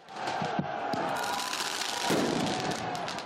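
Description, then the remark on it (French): Firework mortars fired at police during a riot in Paris, on the tenth day of protests against pension reform, with several sharp pops and crackles over a dense, continuous roar of shouting and commotion from a noisy crowd. “Mobilier urbain détruit, magasins vandalisés ou encore cette séquence de jets de mortier sur les forces de l'ordre.”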